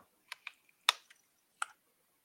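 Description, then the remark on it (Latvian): A second battery being slotted into a vape mod: a handful of sharp plastic clicks and taps at irregular intervals, with one louder snap in the middle and no talking. “Ieliec otrādāk otru bateriju.”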